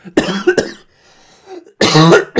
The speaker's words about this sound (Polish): Jezu, przepraszam, myślałem, że już mi ten kaszel, kaszel przeszedł.